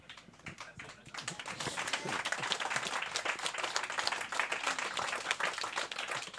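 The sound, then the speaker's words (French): A crowd breaks into applause, dense rapid clapping that swells after the first second and holds steady at a lively level throughout, with no voices standing out. “Applaudis si ça te tente, ça veut plus rien dire.”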